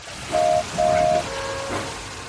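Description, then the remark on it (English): The steam engine Oliver, with Toad, puffing away by the sea at night, gives two short, steady whistle toots, followed by a longer, slightly lower whistle tone over a soft, continuous rumbling hiss. “As Oliver and Toad puffed away, Skiff looked out across the sea.”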